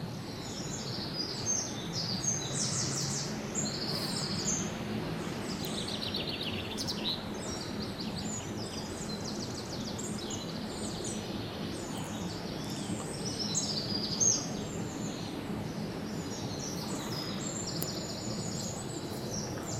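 eurasian wren singing

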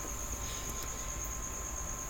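cricket chirping

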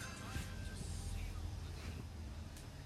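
garbage truck passing outside

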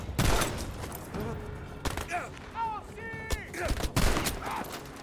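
video game gunfire

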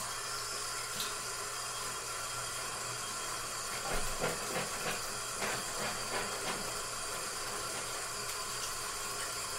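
running shower water

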